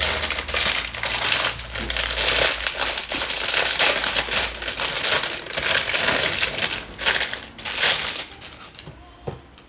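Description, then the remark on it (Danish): Continuous crinkling and tearing of wrapping paper as a present, a small wipe-clean writing board, is opened, with dense rustles and sharp crackles running for about ten seconds and easing off near the end. “Den knibrer lidt, den her.”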